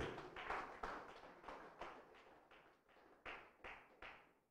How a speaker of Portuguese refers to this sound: Vamos aplaudir o Senhor. Aleluia.